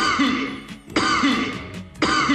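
Sharp human coughs repeat roughly once a second as a rhythmic beat, loud and close, layered over a dense, bright music track.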